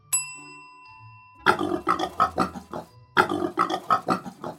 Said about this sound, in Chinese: 这是什么动物啊？是最爱睡觉的小猪。